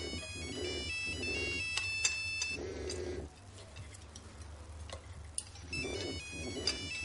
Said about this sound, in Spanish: Calle coge su móvil y mira la pantalla. Vuelve a dejarlo sobre la mesa y sigue comiendo. La madre sentada a su izquierda observa el teléfono que vibra y se mueve ligeramente. ¿No lo coges? Calle niega.